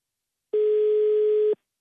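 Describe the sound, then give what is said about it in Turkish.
A single steady ringing tone of an outgoing phone call, one clear electronic burst lasting about a second, heard alone with no voices, starting and stopping abruptly. “Bir telefona bir parfüm. Hadi Ayça hadi Ayça hadi.”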